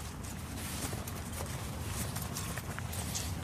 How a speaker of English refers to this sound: All of us go out onto the horses, out through all the fields and all.